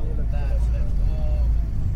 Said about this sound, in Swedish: Och eftersom volymen i bussen är ganska hög så är det ingen som riktigt hör vad jag säger. Vilket är ganska skönt.